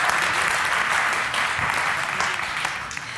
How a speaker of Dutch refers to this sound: Kijk, dat is toch lekker, hè? Voordat je, eh, voordat je al iets gezegd hebt, hebben jullie al je eerste applaus.